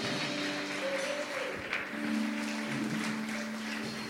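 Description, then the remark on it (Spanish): A crowd applauds the Lord during a sermon, steadily for several seconds, a dense wash of clapping, with sustained keyboard-like tones humming underneath. “Vamos, denle un aplauso al Señor.”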